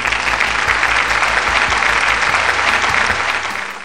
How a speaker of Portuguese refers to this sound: Olha só, parabéns pra gente, uma salva de palmas virtuais.